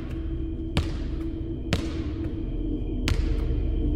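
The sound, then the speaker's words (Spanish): A ball seemingly bounces against the floor of a room in a house three times at uneven intervals, each impact a sharp, hollow thud standing out over a steady low background rumble. “Eso que parecía ser los golpes de un balón contra el piso.”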